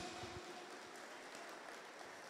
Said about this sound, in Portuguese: Vamos aplaudir a Ele por isso. Glória!